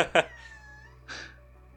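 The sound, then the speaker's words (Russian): A cat meows softly a couple of times, a thin drawn-out mew followed by a shorter one, quiet against a low background hum. “Спасибо, эм, кошка.”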